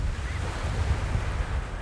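Steady ocean surf washes in on a beach, a continuous low rumble of breaking waves with a faint windy hiss and no voices.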